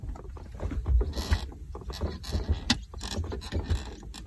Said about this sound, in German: Es quietscht irgendwie eigenartig. Knatscht so ein bisschen. Es sind die Sitze. Es sind nämlich im 190er, wie bereits eingangs erwähnt, äh, vor 1988 Federkernsitze verbaut worden.